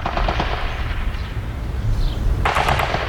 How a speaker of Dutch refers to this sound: Als we op een avond op de binnenplaats zitten, worden de geweerschoten steeds intenser.